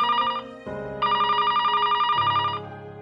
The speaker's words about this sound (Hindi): पता नहीं क्यों मेरे दिमाग में आया कि एक बार उससे बात कर लेनी चाहिए मैंने उसे अपने नए नंबर से फोन किया